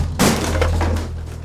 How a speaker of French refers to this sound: Dans l'hôtel de France, les vitres volent en éclats